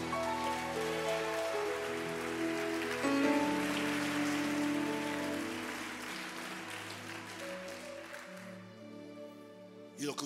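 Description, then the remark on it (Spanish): An audience applauds for Jesus in a dense, steady wash of clapping over sustained keyboard chords. The clapping thins out and fades toward the end, leaving the chords ringing. “De un aplauso a Jesús.”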